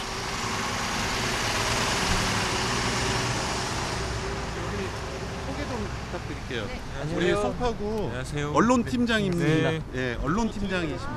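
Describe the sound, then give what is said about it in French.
A car's steady road rumble eases as it brakes to a stop at the edge of a small canal and settles into a low idling engine, with people starting to talk over it in the second half. “Une explication interrompue par le freinage de la voiture qui s'arrête en bordure d'un petit canal.”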